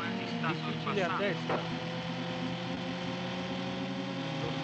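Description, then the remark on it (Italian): Steady buzzing engine drone of a race car in an audio racing game holds throughout, fairly loud and continuous, with a brief voice-like warble rising over it near the start, as the player tries to overtake the car ahead amid traffic in the difficult early curves. “Vediamo se riesco a superare la macchina davanti a me.”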